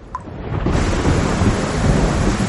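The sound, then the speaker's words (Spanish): Heavy torrential rain pours down in a dense, steady roar, with a deep rumble of thunder rolling underneath; loud throughout, with no voices. “Llueve torrencialmente.”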